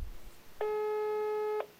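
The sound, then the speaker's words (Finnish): A steady electronic telephone tone sounds once for about a second, clear and fairly loud, a single sustained beep over faint background hiss with no talking, as a phone call is placed. “On pakko soittaa ja kysyä tympäät tytöttilin taiteilijalta”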